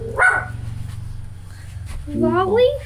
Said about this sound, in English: Best part about this podcast, you never know when you're going to get interrupted by a dog.